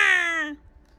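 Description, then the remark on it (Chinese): A single short baby wail on an airplane as it takes off, bright and strongly tonal, sliding downward in pitch and breaking off after half a second, followed by near silence. “飞机起飞时，他们听到一个小宝宝在哭闹：“哇哇！”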